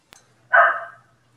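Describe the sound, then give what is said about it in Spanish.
A neighbourhood dog lets out one loud, short bark, preceded by a faint click, with a low steady hum underneath and otherwise quiet surroundings. “Es un perro que, está aquí en mi barrio, que, está medio loco.”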